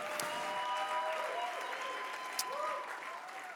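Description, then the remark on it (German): A church audience in Nuremberg applauds steadily for its sister audience in Erlangen, a dense wash of clapping with faint cheers and whoops rising over it, sustained at an even level throughout. “Hey, lass uns mal der äh, Ecclesia Church auch in Erlangen mal hier aus Nürnberg einen riesen, riesen Applaus geben.”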